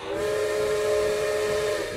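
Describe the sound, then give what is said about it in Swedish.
A loud steam train whistle sounds one long, unbroken blast, its chord of mid-pitched tones holding steady with a breathy hiss of steam underneath, and no voices. “Tågvisslan tystnar och du glider in i mörkret.”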